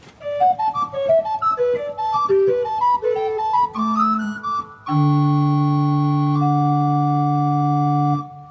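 An organ plays a lively, rippling melody on its soft, breathy Blockflöte (recorder) flute stop, then settles into a sustained full chord held steadily for several seconds.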